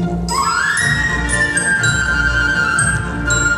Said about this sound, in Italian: Ottavino e flauto, sentite i clarinetti.